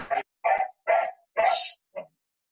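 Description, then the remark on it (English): A dog barks five times in a quick, slightly uneven series, the barks sharp, with short silences between them and no voices. “So the dog is so noisy.”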